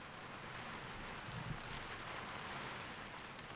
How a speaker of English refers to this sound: Rain on a flat shed roof, as uh, Tennessee Williams almost said.